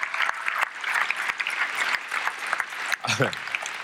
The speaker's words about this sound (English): Can we clap one more time for y'all's worship team, man? They are amazing.